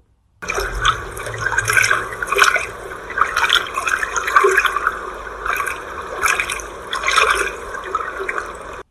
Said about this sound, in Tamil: சிறிது நேரத்துக்கெல்லாம் படகு தண்ணீரில் போகும் சலசலப்பு சத்தம் கேட்கத் தொடங்கியது